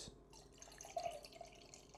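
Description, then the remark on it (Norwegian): Soda from a can being poured into a glass, foaming heavily: a quiet, steady stream of liquid with a crackling fizz on top and a short gurgling rise in pitch partway through. No voices. “For det er helt vanlig å fylle brusen sin på et glass sånn som alle gjør.”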